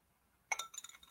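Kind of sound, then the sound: household object, glass of water clinking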